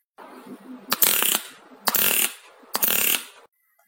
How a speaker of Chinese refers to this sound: 如果你觉得自行车的声音高低还不明显，你还可以试试刮梳子的实验。用塑料片刮梳子的齿，齿比较稀疏的梳子，刮出的声音比较低沉。